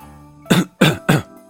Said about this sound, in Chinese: …清了清嗓子，向人问路